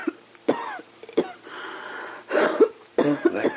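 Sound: coughing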